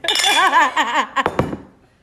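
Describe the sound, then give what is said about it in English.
Glasses clink together in a toast, a few quick bright taps, following a stretch of warbling laughter, then the ringing fades out. “I'm drinking. Cheers.”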